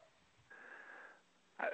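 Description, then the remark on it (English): A man's raspy, wheezing breath drawn out for under a second, followed by a short, sharper burst of air, with no talking. “I heard him breathing kind of heavy there.”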